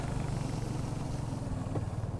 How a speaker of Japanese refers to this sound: 今ピットロードを出てコースインしましたエンジンの音が聞こえるかな